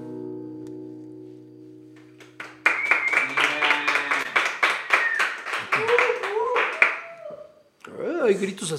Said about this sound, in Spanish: allá arriba. La gente del segundo piso está aplaudiendo.